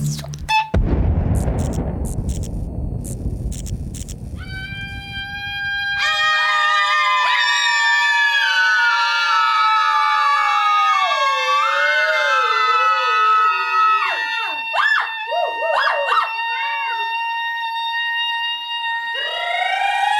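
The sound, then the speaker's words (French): A group of people howls together like a pack, several sustained wavering voices overlapping and sliding in pitch after a low rumbling opening, loud, with a few final swooping cries. “Alors on a continué à crier en meute.”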